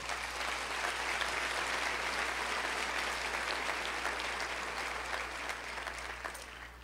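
An audience applauds Jesus steadily, dense clapping filling the whole stretch at an even, strong level before easing slightly toward the end, with a low steady hum underneath.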